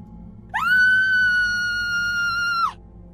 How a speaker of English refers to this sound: Then she screamed.